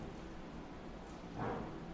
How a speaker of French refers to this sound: Ah, je pensais que c'était du tonnerre, mais non, c'était juste un camion.